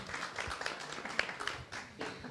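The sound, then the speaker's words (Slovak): An audience at a discussion event applauds with a steady, dense patter of many hands clapping at once, fairly soft and even throughout, with no voices over it. “No, určite to chce potlesk.”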